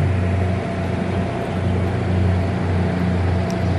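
The motor of a boat carrying people drones steadily as it moves on the water: a loud, constant low hum layered with a broad rushing wash, with no voices and no breaks.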